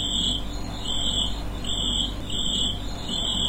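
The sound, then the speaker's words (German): A field cricket chirps in a steady, regular rhythm: about five shrill, high-pitched trills repeating evenly over a low, constant background rumble, with no voices. “Feldgrille.”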